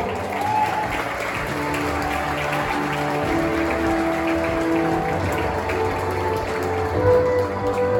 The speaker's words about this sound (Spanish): un último aplauso a nuestro jurado, por favor.